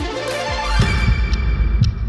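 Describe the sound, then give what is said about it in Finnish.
A game clock timer sound effect plays as the game clock is started: steady, heartbeat-like low thumps pulse over a sustained electronic drone, loud, with no talking. “No niin, me pistetään pelikello käyntiin.”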